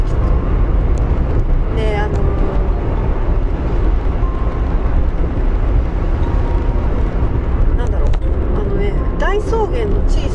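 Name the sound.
motorcycle driving past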